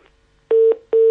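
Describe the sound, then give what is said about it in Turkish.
A loud, steady telephone line tone sounds in repeated beeps, the pulsing disconnect signal heard after a call drops. It plays alone and clear, with no voices. “operatör orada... kesmiş de olabilir bu arada Fahir bu konuşmayı”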